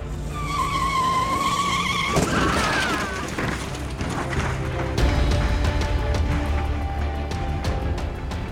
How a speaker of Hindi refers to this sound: car की speed तेज थी अचानक ब्रेक दबने से गाड़ी का संतुलन बिगड़ गया और गाड़ी पलट गई